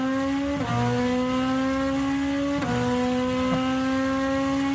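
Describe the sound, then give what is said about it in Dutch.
A DTM race car engine, the same engine as used in Super GT, roars loudly and continuously with a strong, buzzing tone, dropping in pitch at a few quick gear shifts as it pulls hard. No one speaks. “Dus DTM heeft nu een motor gemaakt die dezelfde is als de Super GT”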